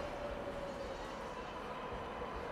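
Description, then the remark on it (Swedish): A train rumbles steadily into a station platform, a continuous roar of wheels on track with a thin, sustained squeal running through it, unbroken, with no voices. “Tåget rullade in på perrongen och där var fullt med andra troll.”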